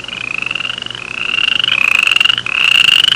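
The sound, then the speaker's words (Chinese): A toad croaking in a loud, continuous high-pitched trill, rapidly pulsing and buzzy, with a brief dip just before the end and no voices. “这时候湖边有只蛤蟆跳过来跟他打招呼道”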